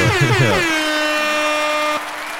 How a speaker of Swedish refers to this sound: En tuta också.